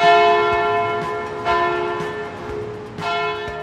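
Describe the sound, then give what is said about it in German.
A church bell strikes the hour three times at a slow, steady pace, each loud clang ringing on with a long, humming decay into the next. No voices are heard. “Deshalb waren die Kirchenglocken für viele die einzige Möglichkeit herauszufinden, wie spät es ist.”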